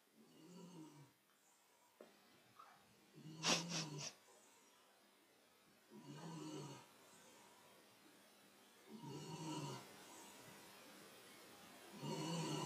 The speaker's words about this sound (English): Can you hear my dog snoring, by the way? Sorry about that. It's not like I can wake her up and go, oh, you stop snoring.